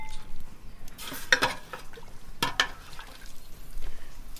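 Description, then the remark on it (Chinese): Pots and utensils clatter and scrape in two short, bright bursts, separated by a quieter stretch of low, steady background noise, as Lisu people cook breakfast, boiling rice noodles and erkuai rice noodles in a big pot over a wood fire, then pouring pork broth over them in bowls. “那么原汁原味的在记录这个傈僳族在做早点，给我们吃有饵丝和米线，用先用大锅柴火把米线和饵丝煮熟，然后用肉汤再倒在碗里面，然后可以自己调料。”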